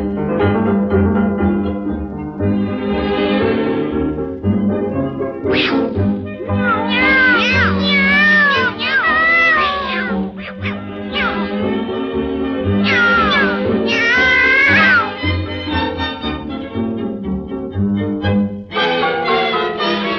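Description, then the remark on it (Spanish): A singer in a Spanish-language song imitates a cat, stretching out a run of loud, gliding meow-like cries ('ñao') over steady musical accompaniment, repeated in bursts through the song. “Ven a ver a tu gatita buena moza, pili blanca y ojos verdes como el mar.”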